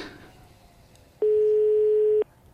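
A single steady electronic ringing tone of an outgoing telephone call, after numbers are dialed, sounds on the line for about a second, clear and even, after a moment of faint line hiss.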